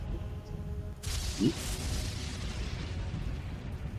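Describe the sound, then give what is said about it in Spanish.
Bangs that imitate firecrackers, though they are not real firecrackers, burst in suddenly as a rough, crackling roar with one sharper pop partway through, muffled, and continue steadily to the end with no one talking. “No son petardos, pero bueno, simulan serlo.”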